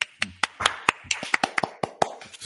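Sparse, uneven clapping: about a dozen sharp, crisp hand claps spread over a couple of seconds with an irregular rhythm, thin rather than a full round of applause, and no voices.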